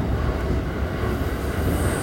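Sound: train riding on rails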